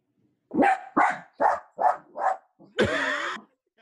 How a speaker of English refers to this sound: I guess this dog don't like the top five.